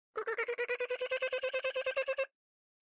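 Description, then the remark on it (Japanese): A dolphin chatters in a rapid, even train of about sixteen squeaky, buzzing clicks lasting two seconds, clear with no voices around it. “イルカが鳴くことを英語で click と言います。”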